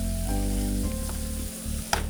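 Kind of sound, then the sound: food or drink, food sizzling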